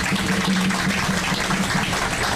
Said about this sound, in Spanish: Un fuerte aplauso para Yasmín Camacho antes de comenzar con la ronda de preguntas.